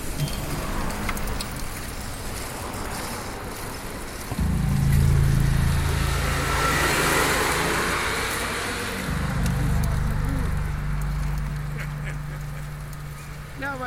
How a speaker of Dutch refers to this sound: Oh, er komt een auto achter, zo, jongens.